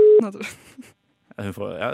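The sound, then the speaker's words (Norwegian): A short, loud, steady electronic Skype outgoing call tone sounds for a moment at the start, then gives way to voices talking, a pause, and more lively speech. “Vi bruker Skype.”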